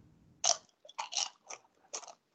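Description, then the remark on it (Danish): A loud crunch of a man biting into crispy potato chips, followed by several sharp, crackly chewing crunches in an uneven rhythm, with no talking. “Det er din chipsspisende far”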